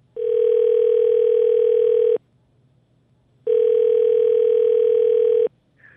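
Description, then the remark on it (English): Two long, steady electronic ringback tones, each lasting about two seconds with a pause between, loud, as a morning radio show's outgoing phone call rings on the line. “And uh, hello, we wanted to give you a call.”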